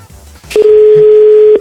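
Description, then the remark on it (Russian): A click on a phone line as a caller rings a radio programme, then a loud, steady telephone tone holds for about a second before cutting off abruptly. No one speaks. “И поэтому, когда тебе нечего написать, радио пишет тебе само, точнее ну, звонит.”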